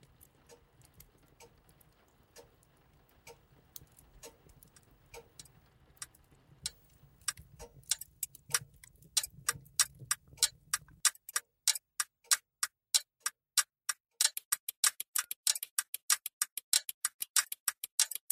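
A clock ticks in a steady, even rhythm, starting faint over a low hum and growing louder and crisper once the hum drops away, the sharp ticks standing out alone.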